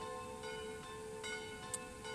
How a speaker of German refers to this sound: und jetzt läuten schon wieder die Glocken. das finde ich jetzt wirklich lustig, dass da die Glocken läuten,